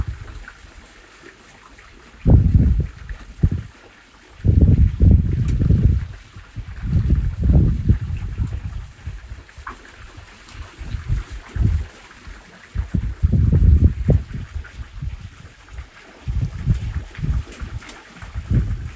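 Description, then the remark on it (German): Outdoors, water flows steadily nearby while gusts of wind buffet the microphone in loud, rumbling bursts that come and go. No one speaks. “Für die nächsten Momente lass dich einfach von dem Klang des Wassers neben dir, des Windes und meiner Stimme in die Entspannung begleiten.”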